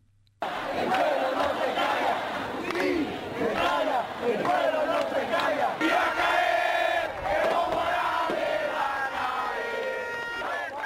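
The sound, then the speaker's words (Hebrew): Protesters at a street demonstration in Bolivia, against the presidential election results, chant loudly in unison that Morales is going to fall, a dense crowd of voices rising and falling in a steady rhythm, with scattered shouts over the top, filling the whole clip after a brief silent start. “כן, המפגינים קוראים בין היתר מוראלס הולך uh, ליפול, ונזכיר שהם מוחים נגד תוצאות הבחירות לנשיאות שם בחודש שעבר.”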